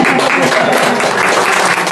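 A church audience applauds during an afternoon worship service, clapping as a way of worshipping the Lamb: a dense, continuous wash of many hands clapping at an even, loud level for the whole stretch, with no break or single voice standing out.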